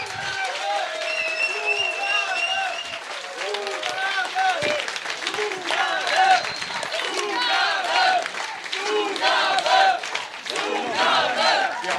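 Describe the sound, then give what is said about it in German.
An audience at a band's live concert applauds steadily for about twelve seconds after a song, dense clapping mixed with loud cheers, whoops and shouting voices that rise and fall without letting up. “Einen großen Applaus!”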